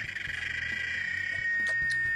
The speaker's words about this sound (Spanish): Bueno, chicas, la chicharra es un invento nuestro en el que suena un sonido súper raro y ya está.